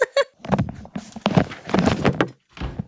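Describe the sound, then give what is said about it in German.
A door is pushed shut, with several dull thumps and knocking clatters of handling in quick succession before it settles. “Machst du meine Tür wieder zu, sonst höre ich euren Fernseher.”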